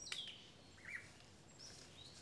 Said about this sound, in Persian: در این جنگل همه چیز زیباست حتی در میان این همه صدای پرنده متفاوت صدای یک زنبور یا مگس هم زیبایی خودش رو داره